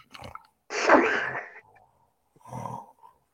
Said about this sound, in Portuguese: é, eu não ronco assim, hein? Minha namorada falou que eu ronco demais. Eu não, acho que eu não ronco muito, não.